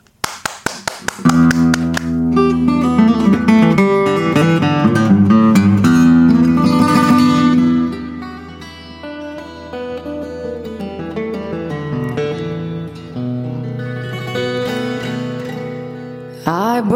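A jazz band plays a cover song, opening with a run of sharp percussive hits before the full ensemble comes in with rich sustained chords and a steady groove, loud throughout.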